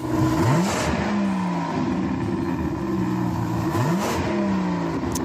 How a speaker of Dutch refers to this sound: Dit is het scherpe geluid van de BMW 12 cilinder, de V12.